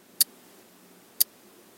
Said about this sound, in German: Die Membran eines Kondensatormikrofons ist sehr viel leichter und daher auch empfindlicher. Das Ticken ist damit schon sehr viel besser hörbar.